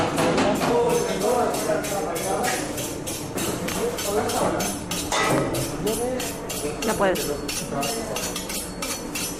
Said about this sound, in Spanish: Ahí se oye el sonido de los cuchillos.